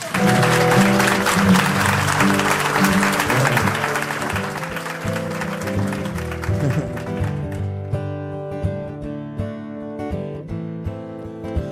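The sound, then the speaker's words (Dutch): Loud audience applause welcoming a singer fills the first half, a dense crackle of clapping over steady band music, then thins out and fades while the music carries on alone. “Dames en heren, geef hem een warm applaus.”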